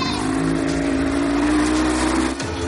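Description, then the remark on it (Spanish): A motorboat engine drones loudly and steadily as the boat, tied by a rope to a tarp, slowly moves off, its pitch climbing gradually as it revs, then briefly dipping near the end. “La barca avanza lentamente.”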